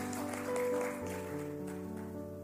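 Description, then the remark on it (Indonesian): An audience claps in a long, steady burst of applause for the Lord Jesus, dense and unbroken, over sustained keyboard or organ chords that carry on beneath it. “Tepuk tangan yang panjang bagi Tuhan Yesus.”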